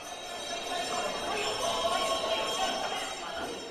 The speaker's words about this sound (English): Bells ring, the men huddle up with a shouting, bidding goes. Looking down, I see hundreds of giant tuna all over the trading floor.